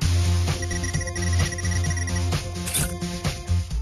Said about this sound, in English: That that weird sound like somebody sucking in their teeth at the end, that was a bunch of coins being thrown at you.